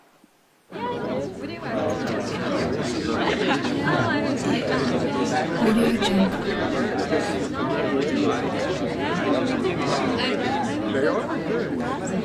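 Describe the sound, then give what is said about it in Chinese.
Dense cocktail-party crowd babble from many overlapping voices, steady and fairly loud throughout, with no single voice standing out, after a brief quiet moment at the start. “在这样一个很嘈杂的环境当中，对我们人类来讲，我们是还是比较容易呃关注到我们想听的一个人的说说话呃话音当中的。”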